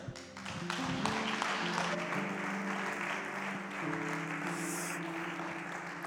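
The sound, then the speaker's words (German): Sustained audience applause at a church service after a sermon, a dense wash of many hands clapping at steady loudness for several seconds, with a low musical tone humming underneath. “Komm, lass uns den beiden nochmal diesen Applaus geben.”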